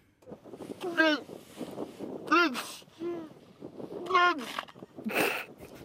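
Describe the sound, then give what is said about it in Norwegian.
A person vocally imitates a cartoon seal with a series of four or five short, barking, honking calls with rising and falling pitch, spaced about a second apart. “Dere har liksom den der eh, tegneseriesel-lyden. Eh, sånn her høres en sel ut.”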